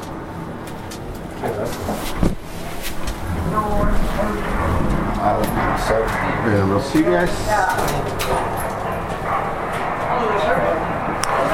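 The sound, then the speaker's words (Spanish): Steady industrial machinery drones beneath irregular sharp knocks and bangs of workers hammering inside a ship's hull in a shipyard, among huge iron columns, while people talk over the constant, fairly loud clatter. “Escucháis las máquinas y la gente trabajando. Y estamos aquí pues como si estuviéramos dentro del casco.”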